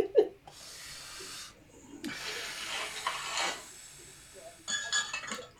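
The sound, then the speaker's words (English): A single bright clink of a glass cup at the start, followed by soft, breathy sipping and rustling sounds in bursts, with no one talking. “See, you have to spark okay. up, you know take a sip.”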